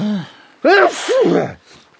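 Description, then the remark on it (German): A single loud sneeze bursts out with a sharp inhaled build-up and a forceful explosive release, followed by a brief breathy trail. “Gesundheit.”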